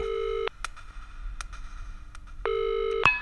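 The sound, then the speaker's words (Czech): A telephone rings in two steady, buzzing tonal bursts separated by a pause of about two seconds, with a few faint clicks in between. It sounds fairly loud, with no voices. “volám z toho baráku od domovnice.”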